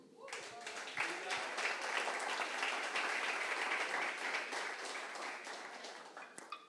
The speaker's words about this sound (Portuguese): Dê um aplauso ao Senhor.